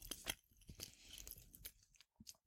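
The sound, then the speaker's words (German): Wet mouth smacking with irregular clicky, crunchy bursts, like someone chewing right next to the microphone, fairly soft, with no talking. “ah, dieses Schmatzen ist akustisch so toll, oder?”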